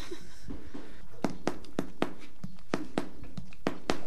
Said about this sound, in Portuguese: E aquele cavalo ali do fundo está ali a fazer um barulho. É, é, o, é o Goldfinger.